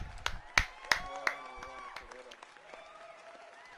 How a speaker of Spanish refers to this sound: Por favor, un aplauso.